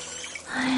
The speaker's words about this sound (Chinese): 这一天，她一如既往的听完了故事后去洗澡，哗啦，咕咚，楼上冲厕所的声音。